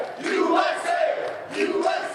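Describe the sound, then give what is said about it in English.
A large crowd at AmFest roars and cheers as the doors open and people enter the event hall, a dense, sustained wash of many voices swelling and dipping slightly, with a few higher shouts rising out of the din. “So we had an early crowd of reprobates that snuck in, obviously, the war.”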